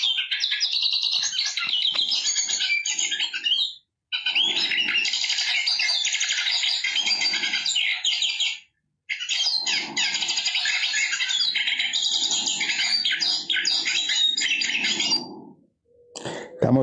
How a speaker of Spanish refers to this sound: escuchando el Cabecita Negra.